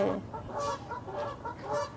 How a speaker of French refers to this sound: Calme-toi, canard C'est les canards là Ouais, c'est les canards. C'est les oies.